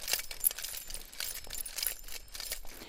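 Bright metallic jingling of heavy silver coin necklaces worn around a woman's neck with a colorful traditional costume, clinking with each of her steps in a village community hall in Werska. Repeated clinking bursts in a loose rhythm, high and tinkling, moderately loud with no talking.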